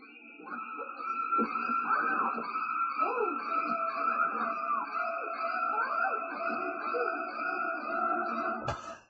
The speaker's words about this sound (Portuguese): os ruídos ouvidos na cena clássica do filme Psicose de Alfred Hitchcock